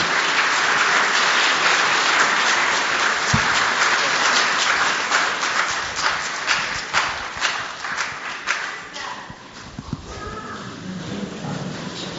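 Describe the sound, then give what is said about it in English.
A crowd applauds a speaker at a morning gathering, a dense wash of many hands clapping that holds strong for several seconds, then thins into scattered individual claps before fading out. “Uh, let's give him a round of applause as we receive from this morning.”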